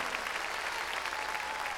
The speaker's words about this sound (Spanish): Ah, palmas fuertes a nuestro Señor. Gloria a Dios.